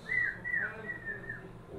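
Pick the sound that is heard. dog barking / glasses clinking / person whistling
person whistling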